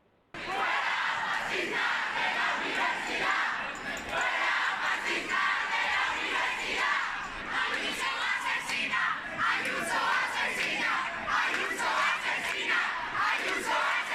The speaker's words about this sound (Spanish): Estos eran los gritos de esos estudiantes que estaban en contra de Isabel Díaz Ayuso y enfrente tenían a los alumnos que apoyaban a la presidenta de la Comunidad de Madrid.